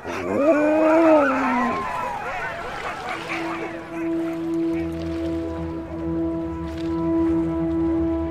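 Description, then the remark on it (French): Sled dogs howling in a group, with wavering, overlapping cries at first that settle into one long, steady sustained howl, loud throughout. “Pas vrai les chiens”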